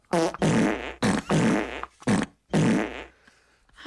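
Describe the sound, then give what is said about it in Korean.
Someone imitates snoring with their voice: five loud, raspy, buzzing snorts in a steady rhythm, each about half a second long, separated by short pauses. “심하게 코를 고는 사람은 자기 코고는 소리에 잠을 깨기도 한다던데 이 사람은 그러지도 않더군요.”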